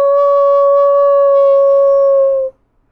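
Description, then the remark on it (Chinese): A hungry wolf sitting on a rock gives one long howl that holds a steady, high, slightly falling pitch with rich harmonics for about two and a half seconds, then cuts off abruptly into silence. “有一天，一只狼坐在驴小弟变成的那块岩石上，饥饿的一遍又一遍的嚎叫着”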